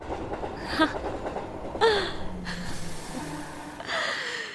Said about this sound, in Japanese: まさかの電車のサウンド入りましたけど